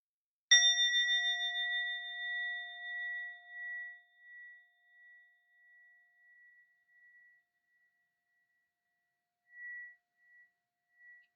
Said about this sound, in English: I'll invite the bell and you can just let it carry you right to the end of this time together.